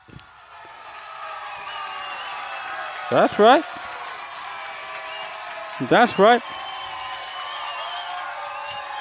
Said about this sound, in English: Go ahead, clap it up. Clap it up, people. Clap it up.